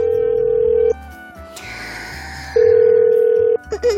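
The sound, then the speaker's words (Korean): A phone ringback tone sounds twice with a long pause between, steady, while a caller waits for a team leader to pick up; the call goes unanswered, and a soft noise follows at the end. “제가 전화를 드렸습니다”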